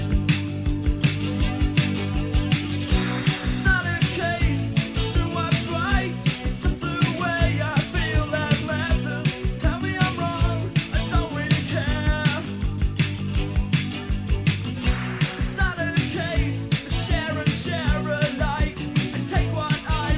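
A rock song plays steadily and loudly throughout, with driving drums, bass and guitars filling a dense, continuous full-band sound and no voices talking over it.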